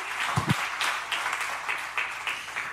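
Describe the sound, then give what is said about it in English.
An audience of a church community claps for each other steadily, a dense patter of many hands forming a sustained wash of applause at moderate loudness, with no voices over it. “That is very, you could clap for that. You clap for each other.”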